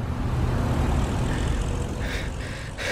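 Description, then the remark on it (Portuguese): A stalled car engine sputters and rumbles loudly, a steady low drone broken by a few brief rough bursts toward the end, with no voices. “eu acho que dando um tranco o carro desengasga e a gente chega na igreja.”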